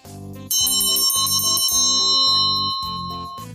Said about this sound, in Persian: هیچ چیز برای خوردن نداشت شکمش رو مالش میداد که یهو زنگ در خونه به صدا در اومد